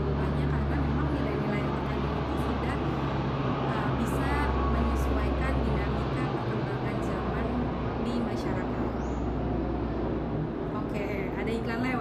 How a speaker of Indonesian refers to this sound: pesawat ada suara pesawat